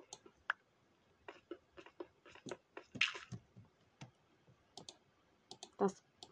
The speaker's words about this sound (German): Oh, der Geräusch, wenn man Erde abbaut.